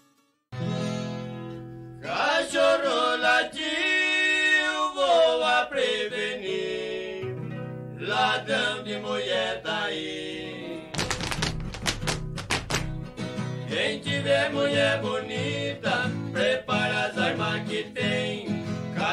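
A Brazilian caipira country duo song plays steadily: two voices sing a melody in close harmony over strummed acoustic strings, with a brief burst of sharp strumming midway before the singing resumes.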